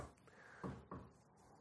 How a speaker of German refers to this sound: hat gerade auf seinen Kopf geklopft.